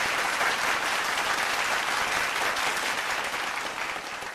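A crowd applauds a quiz contestant who answered four of twelve questions, with dense, crackling claps that hold at an even loudness for several seconds before tapering slightly at the end; no one speaks over it.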